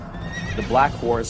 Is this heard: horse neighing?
yes